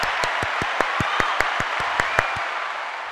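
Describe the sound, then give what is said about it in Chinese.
A short burst of applause given in praise to God on the Holy 赞声 gospel radio show of Kaohsiung Gospel Church: a handful of sharp claps in a quick, slightly uneven rhythm over a steady hiss of crowd clapping, thinning out toward the end. “荣耀的掌声，我们归给神，耶！”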